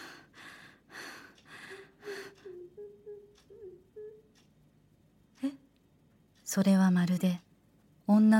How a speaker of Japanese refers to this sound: すすり泣きのような声に聞こえそれは突然バスルームから響きました